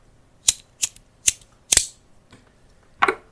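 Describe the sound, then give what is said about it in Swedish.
A cigarette lighter clicks sharply four times at a steady pace, followed by a faint click and a final rougher, scraping strike. No one speaks. “kan du göra fyra stycken eh, klickar med din tändare.”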